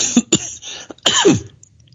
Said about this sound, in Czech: A pak, že nebudeš kašlat.